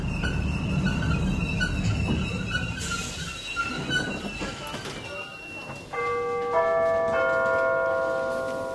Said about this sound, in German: Die Bahn kommt.